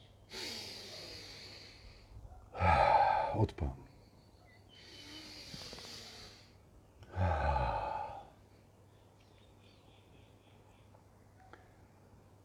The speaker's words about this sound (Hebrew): תקשיבו טוב. בואו ננשום.